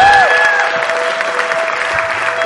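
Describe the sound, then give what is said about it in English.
A large crowd claps steadily in a dense wash of applause, with a faint sustained tone from an organ or keyboard underneath. “Sounds like they like you.”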